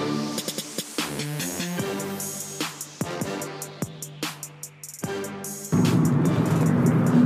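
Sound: inside a car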